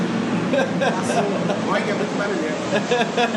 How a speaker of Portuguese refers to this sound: Deixa o avião passar e o piloto olhar aqui.